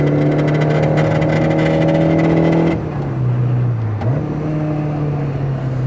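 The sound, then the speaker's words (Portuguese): A car engine holds a loud, steady high-rev drone against its electronic rev limiter, set to beep for the shift and cut, then the pitch drops, dips briefly and settles back into a lower hum. “Ele tem o um corte eletrônico.”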